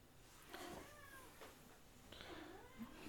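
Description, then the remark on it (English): A cat meows twice, two drawn-out, wavering cries a couple of seconds apart, fairly soft against a quiet background hiss, with no one talking. “Oh goodness, we've got a cat too.”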